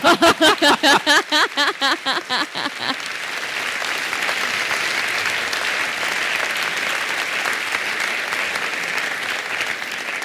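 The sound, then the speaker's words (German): A live crowd breaks into loud, sustained clapping, preceded by a few seconds of rhythmic, pulsing cheers before settling into a steady wash of applause. “Gibt keinen Applaus fürs Fahrzeug.”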